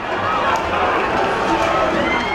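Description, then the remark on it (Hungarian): A dense, steady wash of crowd noise with many voices and scrambling feet, a chaotic running stampede of people and bulls at the year's last running of the bulls in Pamplona, with no pauses. “Itt önök most csak hangokat hallanak, de talán ez elég is, hiszen sokan biztosan a bikákat, mások pedig a felöklelt futókat sajnálnák jobban.”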